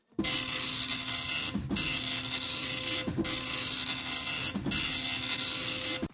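A dot matrix printer buzzes loudly in rapid line-by-line bursts, each pass a harsh, dense rasp separated by brief pauses as the head returns, repeating four times with no voices.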